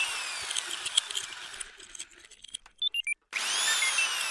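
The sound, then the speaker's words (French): Someone tinkering with tools in a garage: a power tool whines in bursts, metal clinks and clatters, a few sharp tool taps ring out, then a drill starts up again loudly at the end. No one speaks. “il s'habille pour aller bidouiller dans son garage. Il bidouille, il bricole.”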